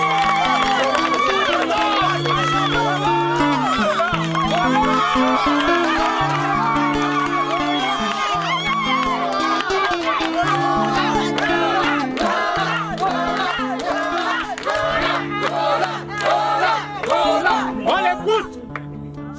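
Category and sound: crowd, audience applause and cheering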